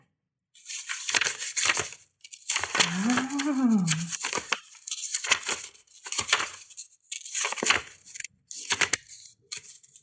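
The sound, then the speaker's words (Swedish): Stuck pages of a brand-new card deck being pulled apart, a series of rough ripping, crackling bursts with short pauses between them, and a brief drawn-out vocal exclamation partway through. “gjorde en helt ny med, vet du, så det går knappt att få isär sidorna här.”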